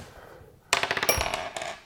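A die clatters across a hard tabletop in a quick burst of sharp rattling clicks, bouncing several times before settling on a five, after a quiet moment.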